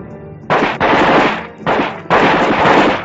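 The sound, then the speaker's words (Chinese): Loud, rapid gunfire from three people shooting at a pack of wolves breaks out after a brief low hum. It rattles in long continuous bursts separated by short pauses, dense and crackling like automatic weapons, with no voices. “一下子打倒了十多只，可是枪声并没有把其余的狼吓跑，相反，枪声过后，从周围的树林中又窜出了许多狼”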